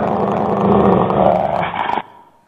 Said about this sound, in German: Und Sie finden sofort, das ist der Rottweiler von meinem Onkel. Ich bin aus Rottweil. Und das ist so, Sie wissen sofort, in welcher Stimmung dieser Hund ist.